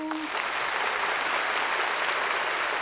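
Steady, dense applause from a group, many hands clapping at once in a continuous wash of sound that holds at an even level for a few seconds, with no voices.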